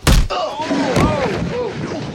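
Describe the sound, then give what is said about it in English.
A heavy punch in a boxing ring lands with a sharp thud at the start, knocking a man to the floor, followed by strained groaning and vocal cries, with a second, softer impact about a second later. “Then, the punch.”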